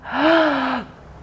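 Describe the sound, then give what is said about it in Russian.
A single sharp, audible gasp lasting under a second, a breathy intake of air with a slight voiced edge, fairly loud, taken before holding the breath as a calming exercise against panic, followed by quiet. “Далее для снятия тревоги мы можем, ну, например, если это молниеносно какая-то паническая атака, все, вышли в туалет на этой встрече, зашли в туалетную комнату, задержали дыхание,”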